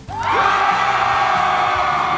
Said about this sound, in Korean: 함성 질러주세요!